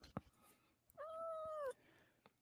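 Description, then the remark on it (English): A single drawn-out cat meow, fairly loud, holding a steady pitch before dipping slightly at the end, with a brief tap or click just before it and quiet background otherwise. “Say meow.”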